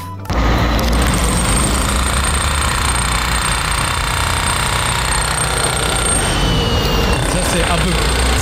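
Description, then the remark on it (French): A demolition hammer pounds away continuously, a loud, rapid mechanical hammering that starts abruptly and holds steady throughout with a constant rattling drive. “Ouais, ça c'est plutôt marteau C'est ça, c'est exactement ça, c'est un marteau piquant”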